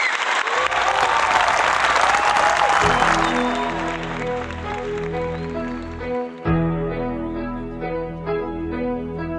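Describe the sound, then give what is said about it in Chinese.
A burst of audience applause welcoming a guest singer on a program, a dense steady clatter of many clapping hands, fades as a melodic music intro with sustained tones rises and carries on alone. “可以哈，来，掌声欢迎。”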